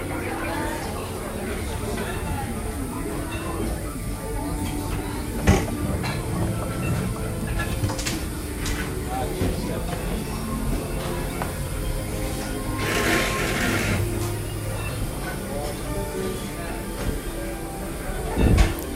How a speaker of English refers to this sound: Your vehicle doors will open automatically. Please keep your hands away from the doors and step carefully onto the moving platform.